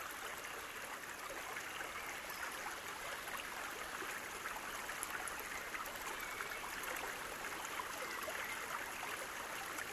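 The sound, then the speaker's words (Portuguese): Steady rushing and babbling of a calm, shallow creek heard from atop a bridge, continuous, with a bright watery hiss that never lets up across the whole stretch. No voices. “Do alto da ponte, escutamos e admiramos a beleza do riacho e da paisagem fundo pássaros cantam.”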